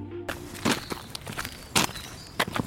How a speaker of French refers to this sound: Vous entendez le bruit de nos pas. Nous sommes en chemin au sens propre comme au figuré.